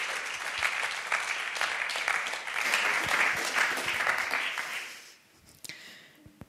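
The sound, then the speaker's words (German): A church audience applauds steadily for about five seconds for a guest co-preaching the sermon, a dense wash of many hands clapping, then it fades out, leaving a few scattered claps and small noises. “Wir geben dir einen großen Applaus”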